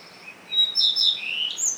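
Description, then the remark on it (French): A common redstart sings its first morning song in a garden in June, a short phrase of clear, high whistled notes that slide and trill, distinct against a quiet, faintly hissing background with no voices. “je vous propose le chant d&#39;un Rougequeue à front blanc dans mon jardin”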